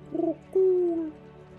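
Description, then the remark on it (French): A pigeon coos twice: a short low warble, then a longer, steadier coo that slowly falls away, over a faint background hum with no voices. “Elle touchera jamais à ce pigeon-là.”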